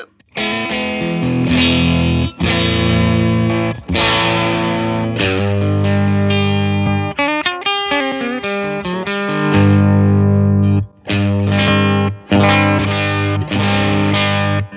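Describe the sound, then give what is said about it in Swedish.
An electric guitar plays chords and short riffs through a Roger May Voodoo 1 overdrive pedal with the gain turned down, a lightly overdriven tone, mildly gritty and warm, loud, with brief pauses between phrases and no talking. “Också en sån där som jag har ägt, som jag har köpt tillbaka, som heter Voodoo 1.”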